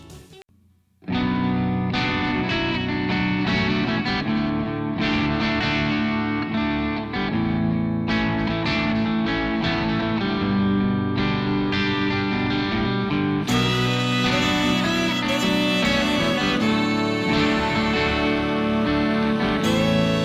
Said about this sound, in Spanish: la canción en versión acústica del grupo extremeño de rock …